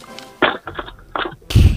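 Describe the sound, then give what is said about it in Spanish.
A very old gondola-style landline handset, sent in by a radio listener, is hung up: a few rattling plastic clacks and knocks, then one loud, heavy thunk as it drops into the cradle. “Y ahora vas a colgar el nuevo teléfono fijo que te ha enviado un oyente, que como es muy, muy antiguo el teléfono, pues hará mucho ruido al colgar.”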